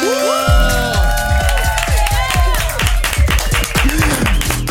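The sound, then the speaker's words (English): A studio crew cheers and claps in a loud, continuous burst as an artist on the phone is announced, with whoops rising over a steady pounding beat throughout, no single voice standing out. “Everybody in the building make some noise.”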